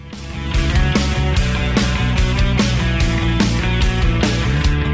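A loud rock band plays an instrumental intro, with sustained distorted guitars over a driving beat and crashing cymbals hitting steadily about every half second. No one sings or speaks.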